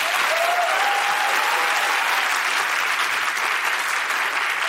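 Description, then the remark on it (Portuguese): An audience applauds steadily, a dense, even wash of clapping that holds at full strength for several seconds, with a faint whistle-like tone rising briefly near the start. The applause congratulates a guest on his film. “Aplausos.”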